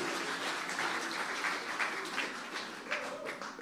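An audience applauds a man who works in the background: many hands clapping in a dense, steady patter that holds at an even, moderate loudness for a few seconds, with no clear talking over it.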